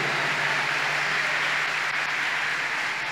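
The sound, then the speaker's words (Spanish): An audience applauds the Lord steadily, a dense, even wash of many hands clapping at once, sustained at a constant loud level with no voices rising above it. “Si puedes darle un aplauso al Señor, esto va a ser mejor.”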